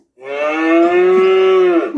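A single long cow moo played by a Google voice assistant, loud, holding a steady droning pitch for nearly two seconds before dipping at the end, with no voices or other sounds around it.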